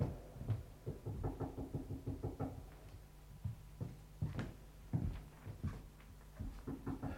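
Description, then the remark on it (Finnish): Repeated hollow knocking on a wooden coffin lid, a steady run of fairly loud raps with brief irregular pauses, over a low background rumble and no talking. “Niin kauan se koputtaa, kunnes reikä on arkun kanteen kulunut.”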